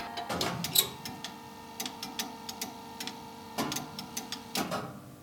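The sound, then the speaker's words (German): Muffled mechanical clicking and ticking from a telephone exchange machine running behind a dust-protective sheet-metal cover, with irregular sharp clicks over a steady low hum. Moderately quiet, no voices. “da haben wir natürlich jetzt noch ein Blech davor, weil das ist ja alles staubgeschützt eingebaut”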